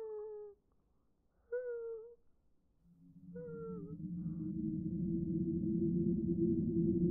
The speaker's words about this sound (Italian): Continui a sentire dall'altra parte della porta un flebile piagnucolio, e un rumore come, di, come il guaito di un cane basso e sofferente.